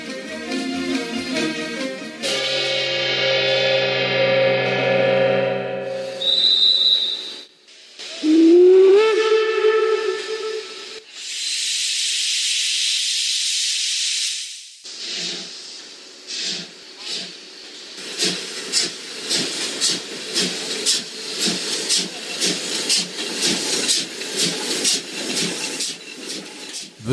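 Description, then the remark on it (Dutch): A steam locomotive on the train from Bruges to Brussels, 7 September 1911, sounds its whistle in long, loud blasts, then releases a sustained burst of hissing steam before settling into a steady, rhythmic chuffing as the train gets underway. “zijn 7 september 1911 en onze onkel pater Jules de Wolf zit in de trein van Brugge naar Brussel op weg naar het huis van de schutisten in Scheut, Anderlecht.”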